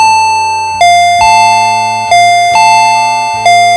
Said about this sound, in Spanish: El interfón suena tan fuerte y tantas veces que los perros vuelven a ponerse locos.